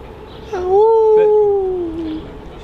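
A single wolf howl, one long, steady, mournful note that rises slightly and then slowly falls away over about a second and a half, heard alone.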